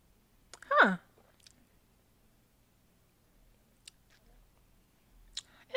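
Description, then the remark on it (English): A single wet slurp of someone sipping a barrel-aged liquor, sliding downward in pitch, followed by near silence broken only by a few faint mouth clicks and small smacks. “So we're gonna get into our our, our sip.”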